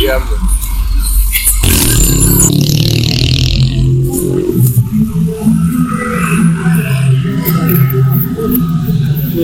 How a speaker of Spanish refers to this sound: Perdón si han notado un silencio muy largo, es que estábamos pasando por afuera de Tepito, hay un chingo de tránsito, entonces por eso no podíamos hablar.